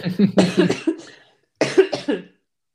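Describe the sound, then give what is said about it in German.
A loud burst of coughing: several rapid harsh coughs, a short pause, then another quick cluster of coughs, with no talking in between. “Jetzt muss ich husten.”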